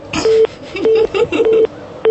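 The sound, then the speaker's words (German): A quick series of short electronic telephone keypad tones, about five beeps in an uneven rhythm, clear, with no one speaking, as a number is dialed for a prank phone call. “Soll ich Ihnen jetzt mal einen professionellen Telefonstreich vorführen? Passen Sie mal auf.”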